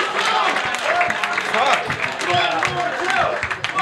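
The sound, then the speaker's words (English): An audience claps steadily and loudly for a few seconds for two people, a dense wash of hand claps mixed with cheering and overlapping crowd voices, holding at an even level throughout. “Clap your fucking hands for these two.”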